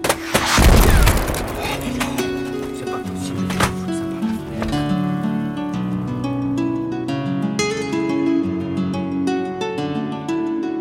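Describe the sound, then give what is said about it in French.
A printer being smashed: several loud, heavy crashing blows at an irregular pace, the first the biggest, then lighter knocks and rattles, all over steady music. “Cette imprimante, c'est pas possible, nom de. Quel d'éléphant Ça marche toujours, et quand il faut que ça marche, ça marche jamais Et il entame une lente procédure de destruction.”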